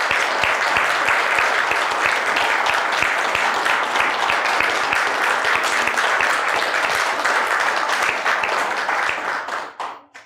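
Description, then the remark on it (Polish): Sustained, dense applause from a concert audience for the Adventus choir at the concert ending its season, a steady wash of many hands clapping at full volume for about nine seconds before fading out quickly at the end. “Wielkie brawa.”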